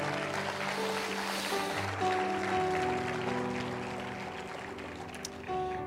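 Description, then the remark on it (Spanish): A church audience applauds God during a morning service, steadily for several seconds, a dense, even wash of clapping with sustained keyboard tones underneath, easing slightly toward the end. “Dale un fuerte aplauso a Dios en esta mañana.”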